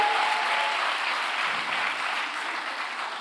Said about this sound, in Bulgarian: О, ако ръкопляскаш, ръкопляскай, като че вярваш.